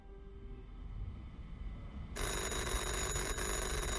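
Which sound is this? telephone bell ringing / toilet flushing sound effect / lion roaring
telephone bell ringing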